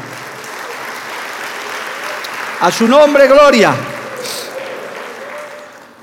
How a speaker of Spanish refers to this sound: Dale un aplauso al Señor, amado hermano.